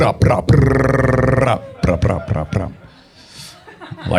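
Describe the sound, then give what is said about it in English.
A voice makes an imitation gunshot, a sharp burst that stretches into a drawn-out, throaty vocal sound for about a second, then breaks into short, choppy vocal bursts. “Although, due to the effects of gentrification, the gunshot noise makes decreasing sense every time I go back for a visit.”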